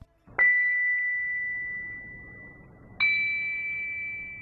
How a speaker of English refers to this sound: Each bell emits two distinct sounds, depending on whether it is struck on its front or side. To fully appreciate this dual tone feature, let's now listen to the primary and side tones of the bell in the top tier of the first group.